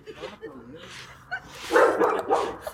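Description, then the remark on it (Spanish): A voice imitates slippers (flip-flops) being dragged across a floor by someone shuffling their feet, starting with soft vocal murmurs and building into breathy, scraping shuffles that rise and fall twice, moderately loud. “Entonces yo de repente, la clásica de las historias de terror, escucho unas pinches chanclas arrastrándose.”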